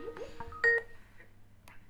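A short Skype call-connecting chime: a quick burst of steady, pure beeping tones lasting under a second, fairly quiet, followed by faint trailing blips and background hum.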